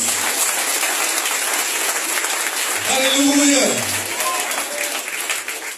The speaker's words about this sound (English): Clap hands for Jesus.